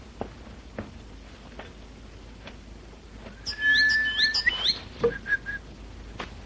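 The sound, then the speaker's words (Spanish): A canary trills and chirps softly for a couple of seconds midway through, its thin whistled notes rising and falling, with scattered light taps and clicks of pots cooking in an otherwise quiet kitchen. “Solo se ve interrumpido el silencio en la cocina de Águeda con el leve ruido de las ollas al cocinar y el trinar tímido del canario”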